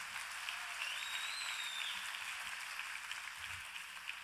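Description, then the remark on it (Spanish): An audience bursts into sustained applause for the Lord, a dense wash of many hands clapping at a steady level, with no one speaking over it. “Dale un aplauso al Señor si tú lo crees.”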